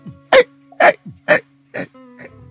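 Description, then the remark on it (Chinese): Loud hiccups echo through a quiet classroom during an exam at an English tutoring class, with about twenty classmates present: four sharp, evenly spaced gulps about half a second apart, then a fainter fifth, over a steady low hum. “我就一直打嗝，可能中午吃的太多了。”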